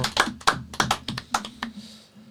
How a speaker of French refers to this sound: Yes, yes, yes. Il n'y a personne qui applaudit comme ça Ça s'entend, hein C'était bien.